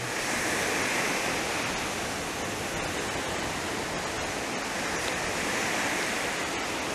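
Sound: ocean waves washing ashore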